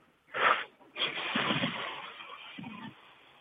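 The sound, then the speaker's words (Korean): A voice imitates a tire slowly losing air: a short, sharp hiss, a brief pause, then a long, steady breathy hiss that trails on close to the mic with no talking. “아, 예, 그, 뭐죠, 그, 타이어 바람 빠지는 소리입니다. 타이어? 천천히 빠지는 소리예요 예, 예.”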